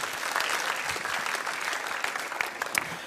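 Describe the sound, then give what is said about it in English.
A crowd claps steadily in a dense wash of applause, many hands at once with a few sharper claps standing out, filling the room without any talking. “Let's put our hands together and thank, thank these guys.”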